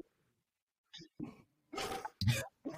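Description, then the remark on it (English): A pet dog barks in a quick, uneven series of about five short, gruff barks, moderately loud, with brief silences between them and no talking. “That's and my dog agrees with you. The dog agrees.”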